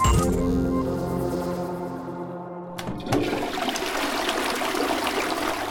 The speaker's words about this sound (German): Täglich spülen wir bis zu 50 Liter Trinkwasser pro Person die Toilette herunter